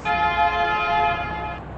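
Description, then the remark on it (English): A car horn blares in one long, steady honk lasting over a second, loud, with a low rumble of road noise underneath that continues after the horn cuts off; other motorists are honking at a driver's unpredictable driving. “the honking horns of other motorists who were getting ticked off at Chip's rather unpredictable driving”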